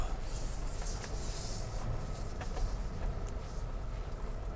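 Steady low rumble of a car cabin on the move during a night drive, continuous road and engine noise with a soft hiss above it and a few faint clicks, no clear talking.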